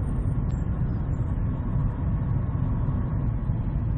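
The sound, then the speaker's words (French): A steady low rumble fills the cabin of a moving car, a constant engine and road drone with no voices and no breaks in its level. “À ma grande surprise, les épisodes précédents de la série en voiture ont été plutôt bien reçus.”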